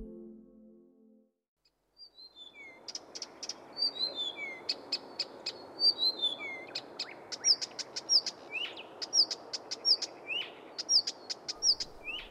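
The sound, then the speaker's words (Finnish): A Blyth's reed warbler sings a fast, varied run of chirps, whistles and trills, clear over a steady background hiss, after a brief low tone at the start. “Viita Kerttonen on linnuistamme paras laulaja.”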